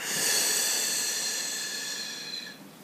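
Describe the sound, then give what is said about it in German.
A long, steady breath exhaled through the mouth during a breathing exercise, an airy hiss that holds for over two seconds and then fades out, with no talking. “Und wir atmen durch den Mund aus.”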